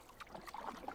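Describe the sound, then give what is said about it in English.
Soft water sounds: gentle lapping against the edge of a canoe with small plops and drips of water from a paddle, with no voices. “If you're lucky, the waves lapping up against the edge of the boat or the plop of water dripping off of your paddle are the only sounds you hear.”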